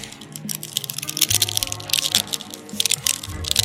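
A candy wrapper crinkles steadily for several seconds as a candy is unwrapped, a dense run of bright crackling and rustling with irregular sharper snaps, fairly loud and with no talking over it.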